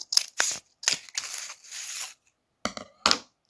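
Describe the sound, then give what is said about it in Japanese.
Scissors cut open a silkworm cocoon, the third one, named Amanogawa-kun: a series of sharp snips and a few longer, raspy crinkling cuts through the papery shell, with short pauses between them and no talking. “繭オープン！”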